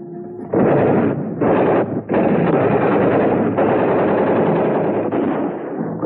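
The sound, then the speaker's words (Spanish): Loud machine-gun fire during street fighting: two short rapid bursts with brief pauses, then a long sustained stretch of continuous shooting that fades slightly at the end, the bursts striking around people on a rooftop terrace. No voices. “Al rato sentimos ráfagas de metralladora que daban alrededor nuestro.”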